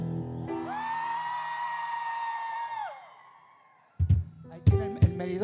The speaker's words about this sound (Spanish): Uno, dos, tres. Griten. Griten las mujeres.